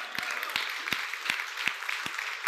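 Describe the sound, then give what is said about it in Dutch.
A crowd applauds in a dense, steady wash of clapping, with sharp, louder claps punching through at a regular beat about three times a second. No one speaks. The applause is given to God. “Daar kunnen we God toch gewoon een applaus voor geven.”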